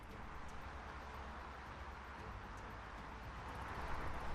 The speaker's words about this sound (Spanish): coches, eh, furgonetas, camiones, a diario pasando constantemente, así que vamos a hablar con ella.